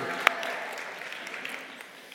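A crowd applauds with a dense, steady patter of clapping that holds for about two seconds at moderate volume, with one sharp, louder clap standing out near the start.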